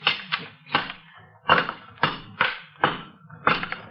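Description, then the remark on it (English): A crowbar strikes a brick wall again and again to knock it down: about eight heavy, loud whacks in a fairly steady rhythm, each a sharp thud followed by a brief crumbling rattle, with no talking. “Here, take this crowbar and knock no, that no. wall down.”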